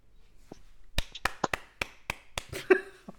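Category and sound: human body sound, hand clapping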